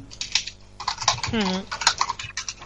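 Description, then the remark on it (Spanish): Rapid, irregular clatter of keys being typed on a keyboard by someone writing a report, continuing throughout, with a brief voiced sound partway through. “que estará cogiendo cosas porque se escucha. Uy, escribiendo.”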